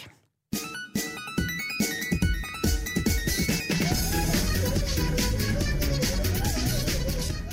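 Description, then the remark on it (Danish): After a brief silence, a bright, fast chiptune melody, the meme song of an animated cat flying through space leaving a rainbow trail, bursts in loudly, with bouncy electronic beeps over a steady, pulsing beat that carries on without letup. “Men det er altså Nyan Cat, en animeret kat, der flyver gennem rummet og efterlader et regnbuespor bag efter sig.”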